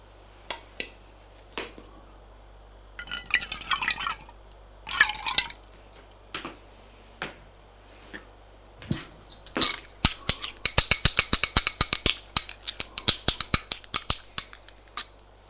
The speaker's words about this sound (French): Il va s'asseoir en face d'elle et commence à se servir son café.